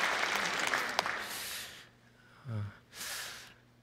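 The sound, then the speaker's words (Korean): A crowd claps to welcome elderly attendees in a dense burst of applause that fades away within about two seconds, followed by a brief low snort-like sound and a short breathy hiss. “우리 어르신들, 우리 어르신들도 우리 격려로 좀 박수로 좀 어, 환영하면 좋겠습니다.”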